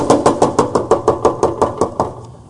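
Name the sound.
knocking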